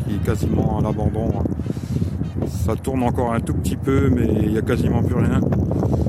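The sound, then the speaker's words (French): Steady low wind rumble buffets the microphone throughout, a constant blustery roar beneath a man talking outdoors at altitude above a town, overlooking the Fensch valley and the former Hayange steelworks in France. “Désolé pour le vent, hein. il y a du vent, je suis désolé.”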